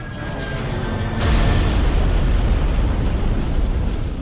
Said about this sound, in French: À 9h03, c'est la tour sud qui est frappée par un second avion.